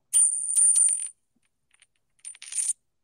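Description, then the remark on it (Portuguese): A small metal token drops and clinks, bright ringing tones with a few quick bounces, then a second shorter jingle of rattling metal after a brief pause, clear with no voices. “Caiu a fichinha. Esse era barulho de ficha.”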